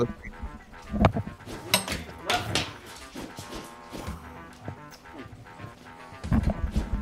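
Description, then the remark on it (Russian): Things from a backpack spill onto the floor after someone startles a cat and snags the backpack: a scattered series of clatters and thuds, bunched near the start and again near the end, with some faint voices between. “Кота напугал, зацепился за рюкзак, блин, все посыпалось.”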